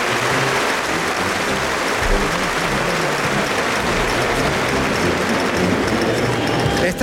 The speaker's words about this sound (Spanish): El tercero natural termina por alto, trincherilla, con la muñeca muy roto el torero y el público en pie aplaudiendo a Daniel Luque.